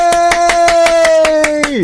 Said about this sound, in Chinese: 让我们热烈掌声欢迎杨俊翰耶！